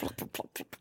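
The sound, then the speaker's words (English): A voice imitates stew being poured from a thermos into a hat: five quick, wet, sputtering bursts in rapid succession, moderately loud and mixing breathy noise with voiced tones. “because it's a sound of stew hit in a hat.”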